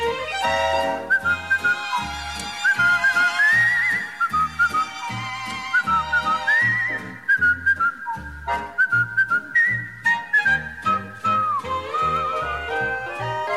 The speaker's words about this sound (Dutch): Ja, hij had zo goed gekauwd en alle kruimels waren weg en hij floot glashelder. Ja. Afluit je het zo zing je het zo.